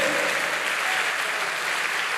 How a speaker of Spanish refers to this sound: Dele fuerte ese aplauso al Señor. Fuerte ese aplauso al que vive por los siglos de los siglos. ¿Cuántos dan un grito de victoria? Dele fuerte ese aplauso al que vive